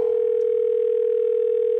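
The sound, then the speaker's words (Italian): A steady, continuous telephone dial tone hums at an even pitch and volume throughout, before a third phone call to an electrician, with no voices or other sounds over it. “Terza telefonata all'elettricista.”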